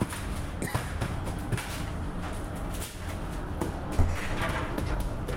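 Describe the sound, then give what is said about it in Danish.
Busy bakery work noise at Skolegades bageri in Herning on a Monday morning around 6: a steady kneading-machine drone with scattered dull thumps of bread dough slapped on a table and short scraping clatters of dough scrapers on wooden tables and tins being taken out, no clear talking. “Ældemaskinen klask med brød i bordet, dejskraber på træbordene og forme, der tages frem af den gennemgående lyd.”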